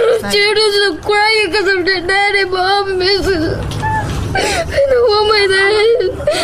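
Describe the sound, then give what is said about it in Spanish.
A girl whimpers and cries because her father has been detained by immigration, her high, quavering sobs coming in long strained bursts with a brief ragged breath in the middle before the tearful wailing resumes. “Estoy asustada, estoy llorando porque mi papá.”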